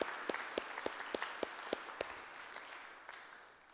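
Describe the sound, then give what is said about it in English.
A church audience applauds to thank the group of people serving the church and the next generation, a dense wash of clapping with a few sharp, distinct claps standing out early before the applause gradually thins and fades. “I know some of you, some of them down here, over here, many of you guys, church, could you say a great thank you to this group of people that are serving you and the next generation?”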